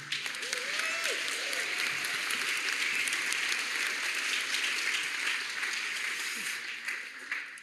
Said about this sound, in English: You could welcome them with very loud cheering if you wanted.